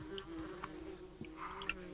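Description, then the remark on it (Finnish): A wasp that has lived indoors since January buzzes steadily, a continuous droning hum with small wavering shifts in pitch, heard alone. “Et meillä on tammikuusta asti ollut tota, ampiainen täällä meidän seurana.”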